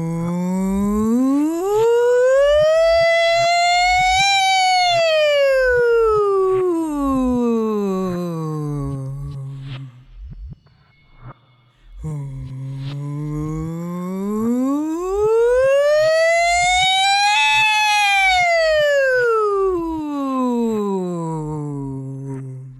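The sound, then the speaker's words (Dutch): A person imitates a fire truck siren with their voice, making two long, loud wails that slowly rise and fall, separated by a brief pause. “Hoe lukt het dat om die brandweerwagen na te doen?”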